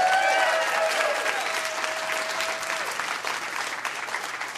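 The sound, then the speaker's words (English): Audience applause: a dense, steady wash of many hands clapping that stays loud and fairly even throughout, with a brief thin whistle-like tone fading out early on. “Well, round of applause for this dude.”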